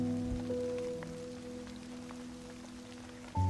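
Steady rain falls in a soft, continuous hiss with scattered faint drops, blended with a sustained low humming drone; no one speaks.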